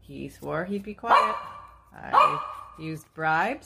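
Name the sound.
dog barking and growling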